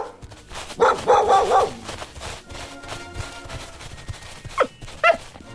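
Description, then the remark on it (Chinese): The Eskimos' sled dogs in the frozen Yukon bark in a loud cluster of overlapping barks near the start, then a few sharper, higher yips follow after a quieter stretch of background noise. “在天寒地冻的育空地区冰屋里，住着爱斯基摩人和他们的狗。”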